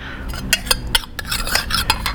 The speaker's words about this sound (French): Voilà. Ça, c'était le cri de la, de la cuillère dans le thé.